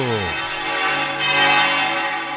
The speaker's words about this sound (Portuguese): Ouvinte, preste atenção. Aumenta o volume do rádio. Vamos ouvir os sinos da maior basílica do mundo.